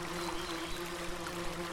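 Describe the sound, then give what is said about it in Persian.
A steady, quiet rush of flowing river water, continuous and even throughout, with a faint low humming tone running underneath and no voices present. “گوش بسپر به صدای رودخونه”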